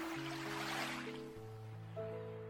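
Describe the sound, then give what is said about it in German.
A soft wash of surf swells and recedes once, heard beneath a steady, sustained synth drone with slowly shifting held notes; no voices. “Tauche nun mit deinem Bewusstsein, während du den Wellen lauscht und ihn zusiehst, ganz bewusst in den Zyklus des Lebens ein.”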